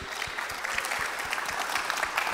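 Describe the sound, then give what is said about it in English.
An audience applauds steadily for a ministry in Nigeria that supports people in poverty to create jobs, a dense wash of many overlapping claps at an even, fairly loud level from start to finish, with no voices standing out. “Y'all can clap for that too.”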